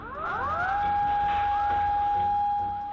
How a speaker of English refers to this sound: And then the sirens started going off a tsunami was on the way.